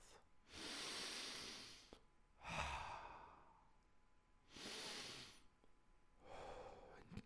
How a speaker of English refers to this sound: Now, ladies and gents, to sort of put our mind back together a bit, here's our deep breathing for the day. Let's get comfortable. Breathe in through our nose, through our mouth.